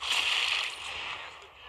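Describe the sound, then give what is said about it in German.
A loud, hissy sniper rifle shot from a video game, with a bright crack that rings out and slowly fades over a second or so, with no talking over it. “Schöner Schuss.”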